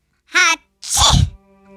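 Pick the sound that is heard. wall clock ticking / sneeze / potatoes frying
sneeze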